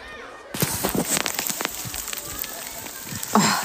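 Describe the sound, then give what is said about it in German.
Steady rain patters in the middle of a forest on a cold, wet day, with scattered sharp ticks and taps of small hailstones striking leaves and ground. A brief louder rustle comes near the end. “Vielleicht hören regnet. Es kommt sogar ein bisschen ähm, Hagelschauer runter.”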